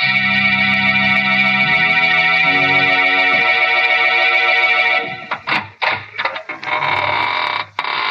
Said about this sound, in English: This is your host to welcome you in through the squeaking door.